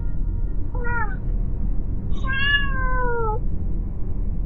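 A cat meows twice, a short chirpy call followed by a longer, drawn-out meow that slides downward, heard clearly over a steady low background hum with no talking.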